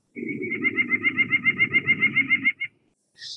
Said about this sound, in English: If you listen to the song of the Nuthatch